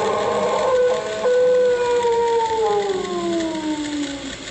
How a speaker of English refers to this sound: This is a portable tape recorder that thing howls or wails or screeches again, I'll get it on this tape.